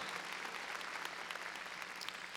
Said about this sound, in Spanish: A ver, dele palmas fuertes al Señor.